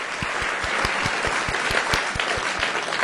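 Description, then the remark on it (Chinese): Steady applause from a group welcoming a child who is about to tell a story, a dense patter of many hands with a few sharper, regular claps standing out, holding an even loudness throughout with no voices. “我们掌声欢迎！”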